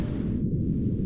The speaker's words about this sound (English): And this is a magnitude 5 earthquake.